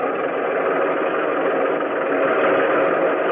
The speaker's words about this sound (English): RLST was supposed to take in both men and equipment, so the first step was to get the boat loaded. Stinky and Jimmy and me and some of the others stood up near the bow gun, where we could watch the tanks roll on deck.